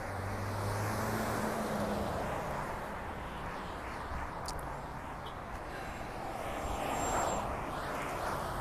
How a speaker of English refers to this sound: sorry i'm just trying to, navigate some traffic